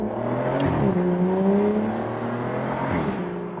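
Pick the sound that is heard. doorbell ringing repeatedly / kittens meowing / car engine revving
car engine revving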